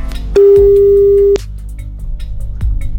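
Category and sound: signal or alarm, telephone ringback tone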